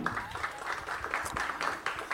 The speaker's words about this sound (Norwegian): Applaus. Oi, det er ikke vi vant til.